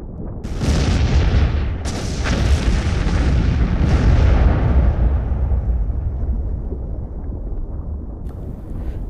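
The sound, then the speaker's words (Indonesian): A series of heavy booming explosions from iron-rich asteroids striking the early Earth, three sharp blasts near the start followed by a long, deep rumbling roar that slowly fades. Loud, with no voices. “Setiap benturan menimbulkan ledakan energi yang meningkatkan suhu bumi sampai 1800 derajat Celcius.”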